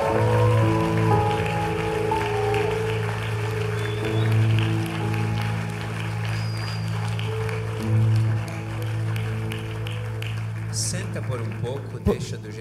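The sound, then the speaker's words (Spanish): Loud, dense audience applause for Jesus that keeps going for about twelve seconds without easing, its crackling claps over a steady low hum. “Podemos aplaudir a Jesús muy fuerte.”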